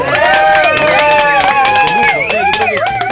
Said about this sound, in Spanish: Ahí están saliendo los aplausos a todo esto. Y un aplauso también para nuestro invitado